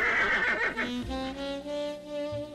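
A horse whinnies loudly, one long neigh with a shrill, quavering opening that drops into lower, shuddering snorts as it trails off, with no voices.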